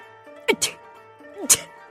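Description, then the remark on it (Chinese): Two loud sneezes about a second apart from the character Guan Laoye, soaking wet and shivering with cold after climbing out of a well: each a voiced, pitched intake sliding into a sharp, hissy burst, performed by a voice over a faint steady hum. “说着，又连打了两个喷嚏。”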